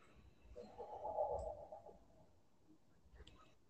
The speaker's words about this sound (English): The fuck was that noise? I don't know. Was that you like breathing weirdly? Oh no, that's my Minecraft.